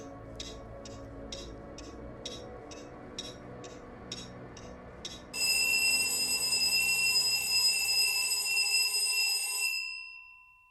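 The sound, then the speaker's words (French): An alarm clock ringing at wake-up, first as a run of quick, evenly spaced beeps, then switching into a loud continuous metallic bell ring that lasts several seconds before cutting off. “Tout commence au réveil.”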